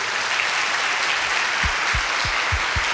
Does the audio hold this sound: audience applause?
yes